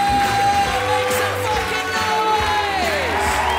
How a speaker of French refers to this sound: C'est soit euh, ma première partie où la personne qui était avant moi sur scène euh, qui gueule comme un con à hein, Faites du bruit pour Paul Taylor Des applaudissements et la musique d'entrée.